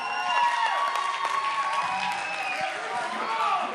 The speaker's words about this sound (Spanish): Hagan un fuerte, fuerte, fuerte ruido con aplauso, con pitorreo, con silbidos.